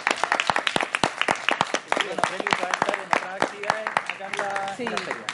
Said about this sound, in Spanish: Eh, un aplauso